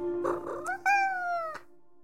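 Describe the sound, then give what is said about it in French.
A single drawn-out cat meow, fairly loud, rising then slowly falling in pitch, with a steady low hum underneath throughout. “se demande de quoi son chat peut bien rêver, lui qui dort toute la journée sans rêveur et qui a toujours l'air si serein.”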